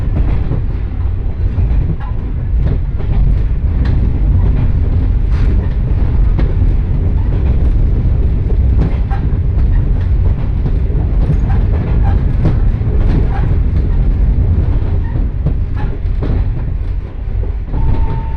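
A two-car train on the Johana Line in Japan, running from Aburaden to Johana, rolls steadily along the rails, a continuous low rumble with faint rhythmic clicks and rattles from the car, heard from inside, with no voices over the loud, even noise.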